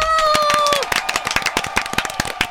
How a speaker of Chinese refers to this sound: 这周马克信箱你看到了影像就知道哦，有大人物要来了，让我们掌声欢迎月老的柯震东与宋芸樺。